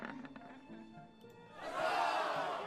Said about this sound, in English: His friends cheer.